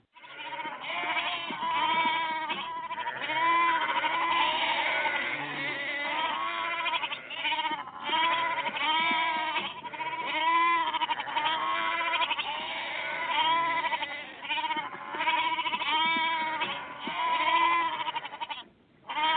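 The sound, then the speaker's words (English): A chorus of goats bleats almost continuously, overlapping wavering cries from several animals filling the whole stretch, loud with only brief gaps. “Goats are now doing some are now getting themselves into some”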